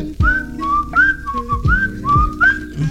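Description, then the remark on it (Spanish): A person whistles a loud melodic call of several rising and falling notes in a repeating pattern, the signal whistle of Atlas football fans (Barra 51), with low background rumble underneath and no talking. “Ahí está, güey, ya lo chiflé.”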